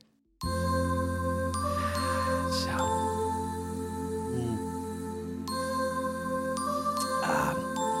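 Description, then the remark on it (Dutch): Sustained electronic chimes and tinkling bell tones played on a synthesizer, ringing steadily over a warm droning bed with a few brighter jingling flourishes, loud with no speech. “op de, op de synthesizer hoor.”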